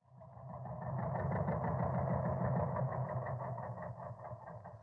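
A car engine idles steadily, a low, even rumble with a fast rhythmic chug that fades in at the start and holds throughout, with no voices.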